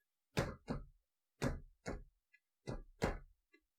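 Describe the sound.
Six heavy thuds in loose pairs, like slow footsteps climbing wooden stairs, produced as Foley work by creaking and knocking a really old chair rather than real steps. No one speaks.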